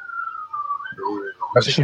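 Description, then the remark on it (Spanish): A steady, wavering high whistle like a siren, coming from a water pipe, holds for about a second before a voice speaks over it and a louder burst of noise cuts in. “No más que era una cañería.”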